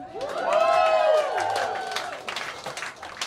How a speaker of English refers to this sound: My dad's gay. Clap for that, it's pride.